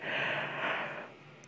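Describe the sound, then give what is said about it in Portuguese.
A single long, breathy yawn, fairly loud, with an airy rush of breath that swells for about a second and then trails off quietly. No one speaks. “Que eu tô muito sono, porque eu não paro de bocejar.”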